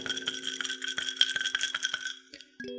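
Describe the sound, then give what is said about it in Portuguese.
Ice cubes rattle and clink against a glass of alcohol being drunk in the evening, in a quick, bright jingle of many small hits, steady for about two seconds before a final ringing chime. “Antes de mais nada, eu quero pedir desculpas se vocês ouvirem um tilitar de gelo como esse.”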